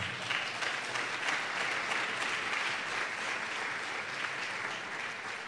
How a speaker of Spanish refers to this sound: Damos un aplauso al Señor, ¿sí o no?